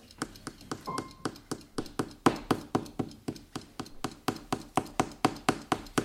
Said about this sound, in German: Hört er den Wecker? Ja, leise.